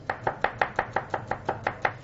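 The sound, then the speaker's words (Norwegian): A knife finely chops onion on a cutting board for a risotto, about a dozen quick, even taps in a brisk rhythm, clear with no talking. “Så begynner jeg å hakke opp løken. Selvfølgelig finhakka.”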